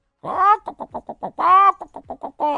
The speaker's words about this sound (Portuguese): Foi o galo que deu o alarme.